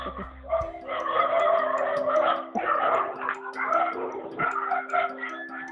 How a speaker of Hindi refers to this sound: sorry कुत्तों की आवाज़ चालू हो गया